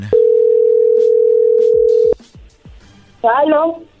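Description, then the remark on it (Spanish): A telephone call being dialed: a loud, steady dial tone hums for about two seconds, then a quick run of short clicks and beeps as the number is entered, before a voice briefly speaks. “A ver, ahí va la llamada”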